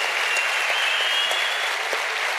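Steady audience applause, a dense even patter of many hands clapping at a constant loud level, with a faint thin whistle-like tone running through it and no voices.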